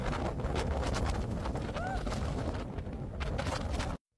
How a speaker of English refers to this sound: This was moments before they kicked me off the top deck. It was so windy. The wind. It was blowing Mucho viento.